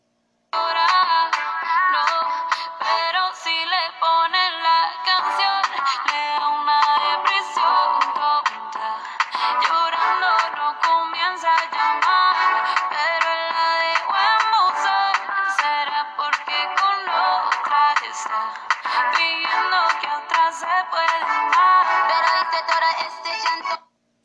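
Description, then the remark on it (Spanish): A bright, synth-like melody from a popular reggaeton song plays on its own for about twenty seconds, its tones steady in loudness, with no voices. “Y lo que acabas de escuchar es la melodía.”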